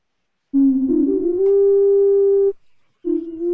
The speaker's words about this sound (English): So there's our nose flute sample.